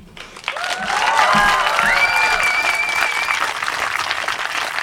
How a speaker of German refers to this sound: Applaus